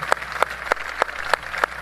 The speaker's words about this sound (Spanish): Hay una parte de la gente que está presente que le aplaude.